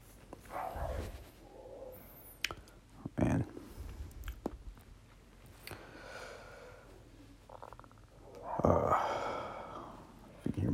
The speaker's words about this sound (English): dog barking in the backyard.